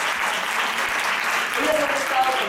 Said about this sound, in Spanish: De verdad, un aplauso, porque son unas reinas